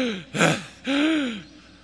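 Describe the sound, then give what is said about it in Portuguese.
A voice imitates gasping for breath on waking from sleep: a sharp, breathy inhale followed by a longer strained, voiced gasp, fairly loud, with no words spoken. “respirando assim.”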